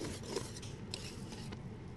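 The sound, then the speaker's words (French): Steady, rasping scrapes of a utensil stirring thick chickpea flour batter in a hot saucepan over lowered heat, continuous with a few sharper strokes against the pan, no voices. “On baisse bien notre feu. On va bien mélanger. On va voir que ça va épaissir.”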